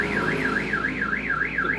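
A car alarm wails outside with a steady rising-and-falling siren tone, sweeping up and down about twice a second, loud and continuous over a low background rumble.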